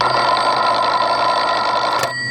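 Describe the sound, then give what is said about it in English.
Old party-line telephones ring together at about 3 a.m. in a loud, continuous metallic jangle of rapid bell strikes, then cut off abruptly with a click near the end, leaving a faint hum. “about 3 a.m., all the party telephones rang.”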